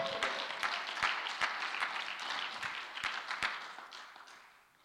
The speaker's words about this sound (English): Ooh, give a hand clapping to the Lord.